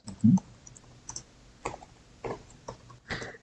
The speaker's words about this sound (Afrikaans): Kom ons sê, hoe kan die burgerlike samelewing Eskom verbeter? Ek tik dit in Engels.